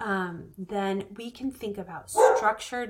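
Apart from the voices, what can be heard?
dog barking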